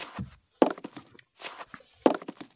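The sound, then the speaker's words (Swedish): Hard footsteps in wooden clogs clatter, two loud sharp strikes with a string of lighter knocks between them, an uneven clunking walk with no voices. “En av hovdamerna sprang genast in och under tiden satte kejsardottern på sig träskor.”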